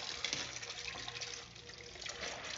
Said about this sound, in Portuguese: Agora eu tô lavando louça aqui.